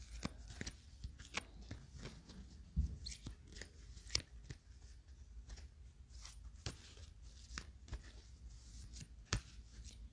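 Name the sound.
tarot cards being shuffled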